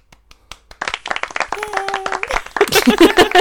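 A few scattered hand claps start things off, then a small group breaks into steady, close-up clapping that grows denser and more lively toward the end.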